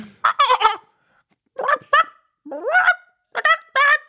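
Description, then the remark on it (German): A chicken clucks in short, harmonic bursts, grouped into four quick clusters separated by brief pauses. The calls are fairly loud, with no talking. “Nein, Huhn, Huhn, Huhn, Huhn, schnell Huhn.”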